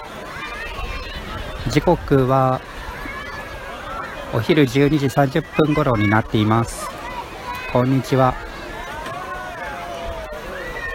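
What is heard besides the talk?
children playing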